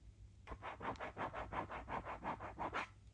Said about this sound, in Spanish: Y ahora lo voy a cruzar. Voy a cruzar el día con un lápiz de, de tinta negra. Bien negra.